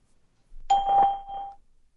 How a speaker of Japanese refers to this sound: こちらはスカイプ音声テストサービスですピーポーンの後にメッセージを10秒間でお話しください10秒後あなたの声が再生されます